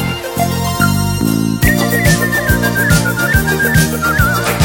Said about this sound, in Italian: tua donna ti vuole lasciare con un fischio fa riva bella biondina prova a farle qualche fischiatina. Se il pomeriggio non ti va di studiare, o se la notte tu non riesci a dormire, se ti senti solo e non hai compagnia, col fischio tu vedrai passerà.